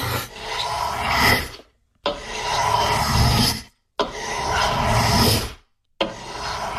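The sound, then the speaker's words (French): A carpenter draws a rasp across wood in four long, steady strokes separated by brief pauses, producing a loud, gritty scraping with a regular back-and-forth rhythm and no voices, in an Apple ASMR sound clip. “Un menuisier qui travaille le bois.”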